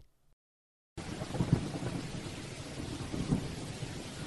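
Steady rain hisses continuously while low thunder rumbles through it, with two heavier rolls swelling near the middle and end; no one speaks.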